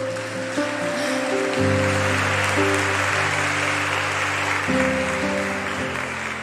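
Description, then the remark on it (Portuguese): An audience applauds the Lord in a steady, dense wash of clapping that lasts several seconds, with sustained organ-like chords changing underneath. No one speaks. “Nos momentos, pode aplaudir o Senhor.”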